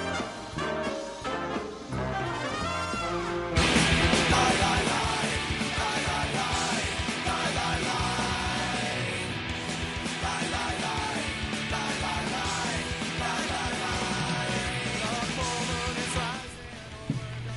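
A loud, driving punk rock song with distorted guitars, pounding drums and shouted vocals, building from a brief intro into a dense, steady full-band wall of sound.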